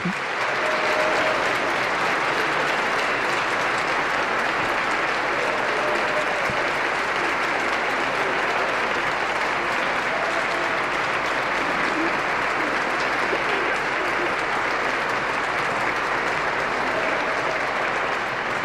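A large audience applauds steadily in a reverberant cathedral, welcoming a new bishop as he takes his seat, the dense clapping holding at an even level for the whole stretch, with faint voices murmuring beneath it.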